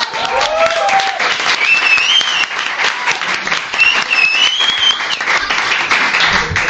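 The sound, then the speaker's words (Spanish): An audience of a weekly topical news quiz show applauds for Carlos Langa: steady, dense applause fills the whole stretch, many hands clapping at once with a loud, continuous crackle and a few faint whoops or whistles above it. “Un aplauso para mi compañero Carlos Langa.”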